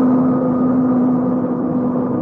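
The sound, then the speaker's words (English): A loud, steady airplane engine drone with a pronounced low hum, holding nearly constant as the aircraft comes to a halt; no voices are heard. “Plane's coming to a halt.”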